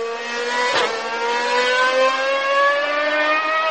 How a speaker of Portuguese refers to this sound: E daqui a pouco a gente olha pro lado, nosso amigo do carro importado resolve mostrar o motor do carro dele e passou com tudo assim.